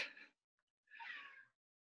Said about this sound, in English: Oh, and of course, my cat decided to join us right now. I thought I heard a little meow.